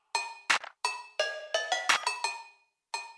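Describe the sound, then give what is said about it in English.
Ringing metallic clanks of pots and pans being struck as percussion in a song, about ten bright hits in a loose rhythmic groove, each tone decaying quickly before the next. No voices. “It really sounds like they went into the kitchen, pulled out some pots and pans, and made a doom doom doom doom doom.”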